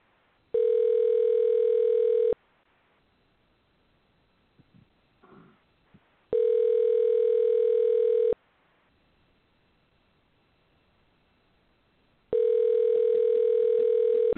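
A phone call ringing out: three long, steady electronic ring tones, each about two seconds, separated by even pauses of near silence, heard clearly through the line.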